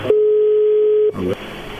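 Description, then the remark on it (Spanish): A steady electronic phone tone sounds for about a second, then cuts off abruptly as the line connects into faint background noise with a brief murmur. “Lo que pasa es que le estamos marcando, pero manda a buzón y a buzón.”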